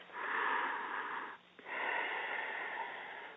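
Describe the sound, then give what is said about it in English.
A long, breathy exhale through a narrowed throat, demonstrating a calming breathing technique, then a brief pause and a quick inhale before another drawn-out, hissing breath. It is steady and fairly loud, with no talking. “soften the exhale and inhale. Exhale, soften the exhale. Make that sound.”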